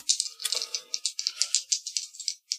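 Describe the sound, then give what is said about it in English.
Two dice rattle steadily as they are shaken in a hand or cup for a charm roll, a dense run of sharp clicks lasting a couple of seconds, fairly loud, with no voices. “go ahead and give me a charm roll, but I'm going to take a die away”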